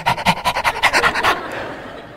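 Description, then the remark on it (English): A dog, Sage, a 30-pound female shepherd mix, pants quickly and rhythmically, about eight or nine quick breathy huffs in a row, then the panting stops and only faint background hiss remains. “She's a little 30 pound shepherd mix.”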